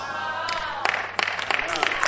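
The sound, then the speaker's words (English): A voice is briefly heard, then an audience breaks into a patter of scattered, irregular hand claps that carries on steadily to the end. “Yes, clap.”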